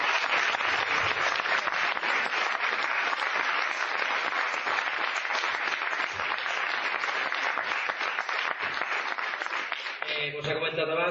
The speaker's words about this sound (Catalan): Però jo crec que un aplaudiment per la gent d'Albal.